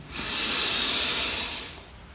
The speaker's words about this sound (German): Wir nehmen zusammen einen tiefen Atemzug und atmen ein.